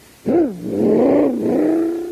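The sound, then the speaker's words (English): A voice imitates the engine of a supercharged toy surface car speeding away, as if driving on Mars: one loud, continuous vroom that swoops up in pitch, dips, then holds a steady hum for about two seconds. “Playing like I'm driving a surface car on Mars.”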